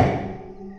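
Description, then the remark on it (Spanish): A single dull knock of a man knocking at the door of a house lands at the start, followed by a short resonant ring that fades away with no voices present. “Aquel hombre siguió llamando a la puerta, pero al no tener respuesta, después de un momento se fue.”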